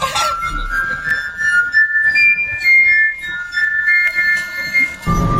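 Clear ringing tones from glass bottles tuned by the level of liquid inside, played as a melody, each struck note chiming bright and sustained in a quick stepwise tune, fairly loud with no voices.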